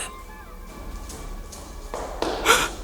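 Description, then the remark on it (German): Footsteps on a stone spiral staircase leading up to a tower room, about six steady treads that grow louder as someone draws nearer, with a faint hum at the start. “Gerade als die beiden sich neugierig umschauen wollten, hörten sie Schritte auf der Treppe.”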